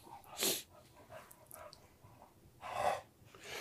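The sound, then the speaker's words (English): A dog huffs and pants in two strong breathy bursts, with soft whiny whimpers and snuffles in between, sounding eager and worked up. No one speaks. “Whenever he hears the Civil Rights Act, he gets very excited.”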